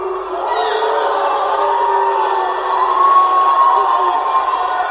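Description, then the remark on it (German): A large audience at the AVN Awards boos loudly and continuously as Jenna Jameson announces she is leaving adult entertainment, a dense wall of shouting voices with scattered yells rising above it, sustained for the whole stretch without a break. “trauriger Moment in der Popgeschichte, der Moment, in dem Jenna Jameson auf den AVN Awards ankündigt, das Adult Entertainment zu verlassen und dafür ausgebuht wird.”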